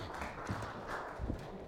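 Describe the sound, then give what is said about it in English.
Thin, scattered applause from only a few people: soft, uneven claps that blur into a faint patter, with no one speaking. “That was a weak clap.”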